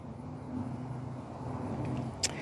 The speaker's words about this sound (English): So, I got another plane flying over. It's not as loud, but now it is.